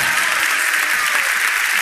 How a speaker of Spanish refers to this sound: Demos un aplauso todos a nuestro Señor. Aleluya.